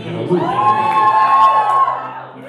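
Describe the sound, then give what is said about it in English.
A crowd of high schoolers in an audience cheers and whoops loudly for about two seconds, a dense burst of overlapping shouts and high-pitched voices that swells and then fades. “They don't see your hands, so you have to like cheer.”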